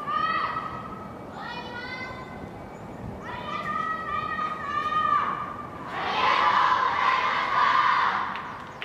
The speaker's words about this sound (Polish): A, dżinkiel.